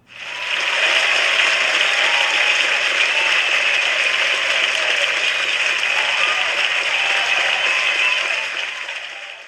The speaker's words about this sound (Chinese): 首先，首先，我们先热烈的鼓掌。